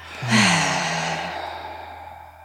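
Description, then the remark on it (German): A long, deep breath pushed out through the mouth after a deep inhale through the nose, starting with a soft voiced hum and trailing off as a breathy whoosh that fades over about two seconds, alone. “Atmet einmal tief ein durch die Nase und durch den Mund wieder aus.”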